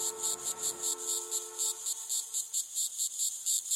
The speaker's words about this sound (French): L'été, il y a des cigales, mais c'est normal, on est à Marseille, en Provence.